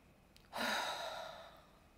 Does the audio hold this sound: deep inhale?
yes